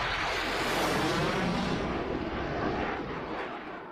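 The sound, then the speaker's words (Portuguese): A fighter jet roars loudly during a morning takeoff from Labé, a town 300 kilometres north of Conakry, sent to try to intercept Portuguese forces; a dense, steady engine blast fills the whole clip, easing off slightly toward the end. No voices. “Só um acabou efetivamente por conseguir levantar voo naquele dia, já de manhã, para tentar interceptar os portugueses.”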